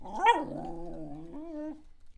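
A dog growls in one continuous rumble lasting about two seconds, its pitch bending and wavering, with a whining edge near the start and no voices around it.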